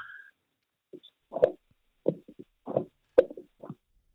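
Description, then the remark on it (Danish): A plunger works in a clogged toilet, heard over a phone call, making a series of wet, squelching plops in irregular bursts, preceded by a short electronic tone at the start. “ringede fra toilettet, hvor han var i gang med at svuppe nogle, øh, nogle, nogle lort op, eller noget, hvad fanden man siger.”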